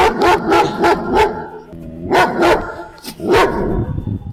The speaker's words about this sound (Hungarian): Ez, ez egy nagy, te, nagy testű kutya, ilyet lehet kérdezni? Ilyet ér kérdezni? Kérdezhez, de ő válaszol, hát most én nem fogok segíteni. ez egy nagy testű kutya.